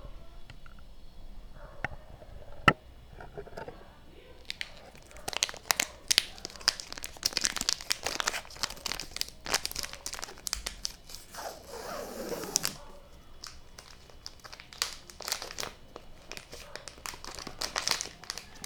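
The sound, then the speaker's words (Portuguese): Crisp crinkling of plastic packaging being torn and pulled open during an unboxing, with repeated sharp rips and rustles over several seconds, fairly quiet but continuous, with no talking. “Eu vou fazer um unboxing, um ASMR e um podcast ao mesmo tempo.”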